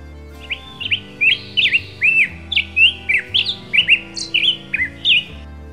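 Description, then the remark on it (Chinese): A small bird calls repeatedly in quick, high-pitched chirps, about a dozen short bright notes in an irregular run, with no talking, over a low steady background hum. “答案就是 小鸟， 没错 是小鸟的叫声哦。”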